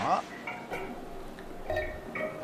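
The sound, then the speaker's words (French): Sap from about 250 maple trees drips plinking into metal buckets, scattered irregular drops each falling at its own speed and each bucket ringing at a slightly different pitch, clear against a quiet background. “Puis ce que j'ai entendu là, c'est les 250 érables qui laissait tomber des gouttes, chacune à sa vitesse propre, chacune d'une chaudière qui n'avait pas la même note.”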